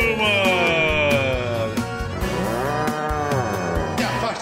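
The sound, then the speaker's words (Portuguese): An ox moos loudly, two long, drawn-out bellows in quick succession, the low droning calls rising and falling in pitch with no talking. “pra lá, boi velho nojento!”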